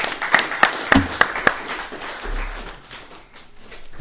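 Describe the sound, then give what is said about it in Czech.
Applause opens with five crisp, evenly spaced claps standing out over a scattered crowd, then settles into a softer, steady wash of clapping that carries on to the end. “Nádherný, nádherný, jenom musíme zatleskat.”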